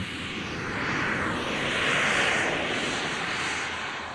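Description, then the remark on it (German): The engine of a small remote-controlled demonstrator aircraft standing on an airport runway drones steadily, a broad whining roar that swells slightly in the middle and eases again, with no voices present. “Inzwischen steht das Flugzeug auf der Startbahn.”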